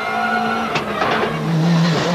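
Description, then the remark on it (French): The engine of Delecourt's 206 rally car roars loudly through a hairpin, its steady whine breaking into sharp revving bursts and a brief scrabbling squeal before settling to a lower drone. No voices are heard. “Le jour de gloire est arrivé car Delecourt frappe lui aussi et la 206 rugit.”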